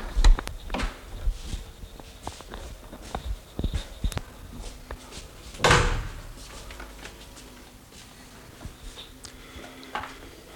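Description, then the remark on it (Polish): A door is handled as someone walks back into a room: scattered clicks, latch rattles and knocks, then a louder thud partway through as it swings shut, followed by a few quieter clicks. No one speaks. “Cholera, drzwi ktoś nie zamknął.”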